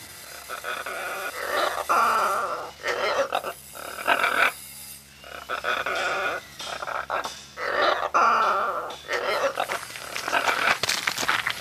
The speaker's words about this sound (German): Der Papagei krächzt im Hintergrund.